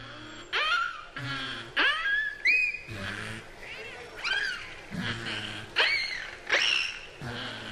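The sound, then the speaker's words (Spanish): Beluga whales calling in a quick string of squeaky, whistling cries, each sliding up or down in pitch, some almost mew-like, repeating steadily with no voices over them. “sino que tiene que ver con las ballenas y es el, que tiene que ver con las ballenas beluga. Esto que estamos escuchando, José.”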